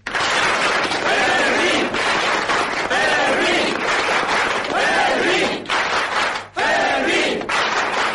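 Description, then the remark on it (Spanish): A crowd applauds loudly and steadily for several seconds, the dense clapping mixed with whoops and cheering shouts rising over it, with only a brief dip before the noise surges again. “En cualquier caso, yo pido un aplauso muy grande para el guardia Fermín.”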